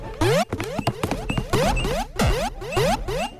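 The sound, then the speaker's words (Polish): A video game cue for an item lying on the ground: a loud, busy string of bright electronic chirps and quick rising sweeps, repeating rapidly for a few seconds with no voices. “To jest dźwięk przedmiotu, to znaczy coś, co leży na ziemi.”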